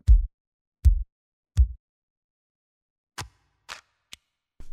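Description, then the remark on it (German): Sampled percussion hits from a drum engine played one at a time on a keyboard: three deep, booming kick-like thumps at a steady pace, then a few shorter, brighter snare and clicky hits, all clean with no talking. “Wenn du unten draufklickst, dann ist nämlich nicht mehr die Engine an mit dem Step-Sequencer, sondern da kannst du die Sounds einfach alle so spielen. Das siehst du auch wunderbar auf der Tastatur hier.”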